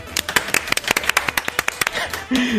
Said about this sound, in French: Bienvenue Lucille, applaudissements s'il vous plaît